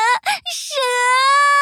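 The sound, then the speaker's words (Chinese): A voice acts out a child's loud crying: a couple of short choked sobs, then one long, sustained, high-pitched wail that holds steady to the end. “只见羞羞兔站在那里哇哇大哭，两条腿止不住的发抖。”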